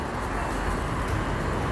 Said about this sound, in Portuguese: Aqui saindo pelo bairro do Tatuapé, zona leste de São Paulo. Você vai escutar algum movimento de carro, algum som de algum comércio.